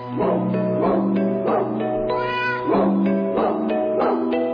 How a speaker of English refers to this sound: It's telling, by the way, that they don't market it as jingle cats and dogs. That they, really the cats are the only thing they use on the front cover. The dog sounds kind of evil. That's the owner in the background who's being smothered.